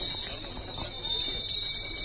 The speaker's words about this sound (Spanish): Que bien suenan las campanillas en el rocío ya, ¿eh?